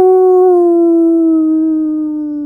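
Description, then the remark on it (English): A dog gives a single long, wolf-like howl, loud, holding a steady tone that slowly sinks in pitch over a couple of seconds, with no talking. “It sounds like there's a wolf in your room.”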